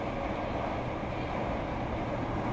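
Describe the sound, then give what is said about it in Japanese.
Steady, continuous rumble inside a moving train carriage on a ride home from work, a low droning roar with a soft hiss on top, holding an even, moderate level throughout with no voices. “それは会社帰りの電車の中で起きた”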